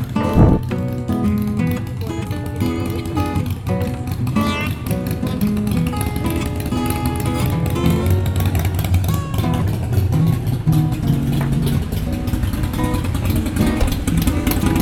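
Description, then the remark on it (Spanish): A loud Harley-Davidson motorcycle engine rumbles and revs steadily for about fifteen seconds as it passes, continuous, with a deep throaty growl and no voices over it. “vamos a pasar la moto pedorra y seguimos hablando”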